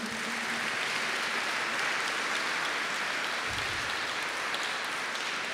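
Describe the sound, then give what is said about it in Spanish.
A crowd claps steadily and densely in applause for the Lord, sustained at even volume for several seconds, with no voices standing out. “Dale un aplauso otra vez al Señor.”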